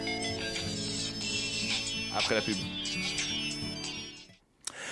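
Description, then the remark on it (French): Electronic telephone ringtone melodies play continuously, bright and tonal, with layered repeating notes; a voice speaks briefly over them midway before the tones cut off near the end. “Les meilleures sonneries de téléphone.”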